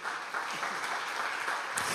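An audience claps for the Lord at night in a steady, dense wash of applause, many hands blending into a continuous crackling roar at an even loudness.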